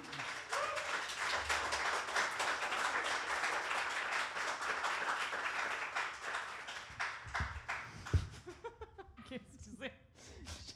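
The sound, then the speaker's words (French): An audience applauds its guests for several seconds in a dense, steady burst of clapping that thins out and fades, giving way to a few scattered voices and light laughter. “Donc, euh, allez, commande une bonne main d'applaudissement, s'il vous plaît, à nos invités.”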